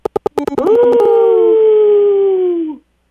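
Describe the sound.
A caller to a radio show imitates a wolf howl, starting with a few quick rhythmic yips and then swelling into one long, loud, sustained howl that slowly slides down and fades out.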